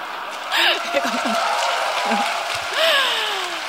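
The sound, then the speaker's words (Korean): An audience claps steadily for the whole stretch, a dense crackling wash of applause, while a woman speaks and laughs over it. “예, 아이고, 자꾸 박수를 받으려던 고건 아닌데.”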